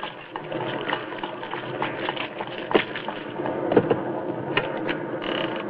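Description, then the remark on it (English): Heavy rain pelts down in a dense, steady hiss, with sharper patters and knocks scattered through it, and no voices. “Good Lord, it's pelting with rain.”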